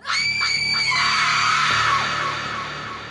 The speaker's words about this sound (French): C'est à cet instant qu'un cri assourdissant de femme vient rompre le silence, tellement fort qu'il est obligé de se boucher les oreilles.